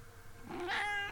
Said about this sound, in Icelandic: Hér er einn köttur yeah.